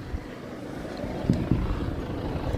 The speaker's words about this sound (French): On, vous avez, ça y est, on entend l'hélicoptère et on le voit.